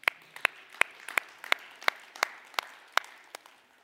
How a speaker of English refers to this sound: Kids, by the way, you guys have been awesome. All right? We owe them a round of applause.